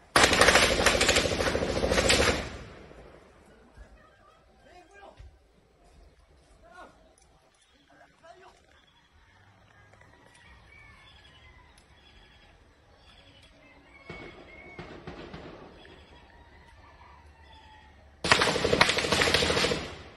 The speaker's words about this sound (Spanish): son civiles armados que están combatiéndose contra otros civiles. Así es que te pongo el videíto, un video corto, pero vas a escuchar las y los disparos y cómo es que se mueven este, estos civiles armados.